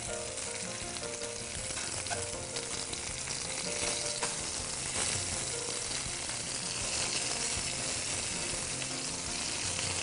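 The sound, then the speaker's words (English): Loud, steady sizzling of scallops searing in a hot pan, a dense crackling hiss that continues throughout with occasional small clinks and scrapes, no one speaking. “And while these are searing off, I'm going to get started sauteing my vegetables for the, for the Fulton Fish Market Cioppino.”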